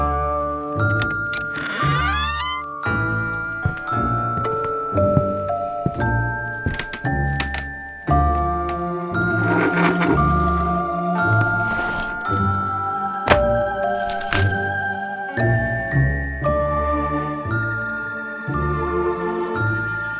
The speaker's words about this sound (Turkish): Müzik